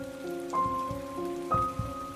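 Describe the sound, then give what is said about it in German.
Water from a shower a woman is taking runs steadily as a continuous splashing hiss, with a few soft low thuds and a faint sustained tonal hum underneath; no one speaks. “Aus Scham und Ekel vor dem eigenen Körper ging sie duschen.”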